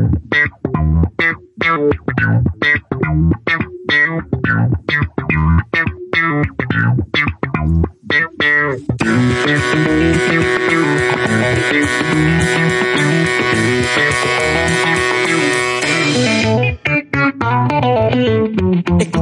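A loud funk track opens with punchy, choppy rhythmic hits, then swells into a dense, distorted, sustained wall of sound before dropping back to the tight groove. No voices.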